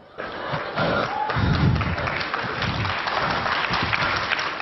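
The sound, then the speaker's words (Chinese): An audience breaks into steady applause for someone walking a few steps, a dense wash of many hands clapping that starts abruptly and keeps going at a fairly even, loud level throughout, with no voices. “不要鼓掌。只是走几步不值得你们来鼓掌”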